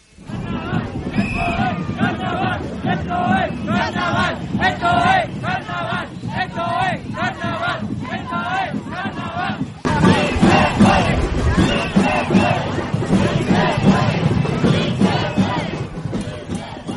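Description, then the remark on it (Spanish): A large protest crowd at a Monday demonstration during the carnival in Badajoz, Spain, chants in unison "sí se puede" and "Badajoz", rhythmic repeated shouts rising over a dense roar of voices, getting louder and more chaotic partway through as the mass of people keeps yelling together. “Bueno, como veis aquí la gente también gritaba al unísono sí se puede, sí se puede y esto es carnaval y también incluso llegamos a ir otro, otras voces del estilo EO, Badajoz, Badajoz, Badajoz, ya bastante tradicional aquí en los carnavales.”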